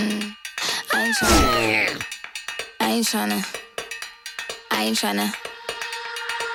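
An upbeat pop song plays loudly, with a sliding, expressive sung vocal over a steady synth tone and punchy, evenly spaced beats.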